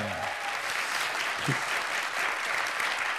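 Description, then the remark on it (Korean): A crowd claps steadily, a dense wash of applause filling the whole stretch, with a brief voice at the start and a short shout partway through. “이세계 회사 대박나시라고 여러분 응원의 박수 감사합리겠습니다”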